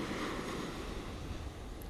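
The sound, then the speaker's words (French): A steady, broad rush of ocean surf, waves coming and going, fills the background, a continuous washing noise with no clear breaks, no voices present. “Maintenant que ta respiration est plus lente, plus douce, le corps complètement relâché et détendu, tu vas pouvoir te connecter à l'eau que tu entends depuis tout à l'heure avec moi en fond. Ces vagues qui vont et qui viennent”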